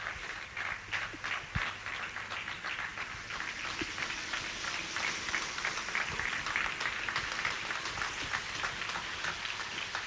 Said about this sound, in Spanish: Sí, aquí estoy en Avenida San Luis entre 25 y 23, escuchando cómo de nuevo la gente sale a los eh, balcones a aplaudir a todos aquellos que están velando y ayudando por esta situación tan complicada que vive nuestro país.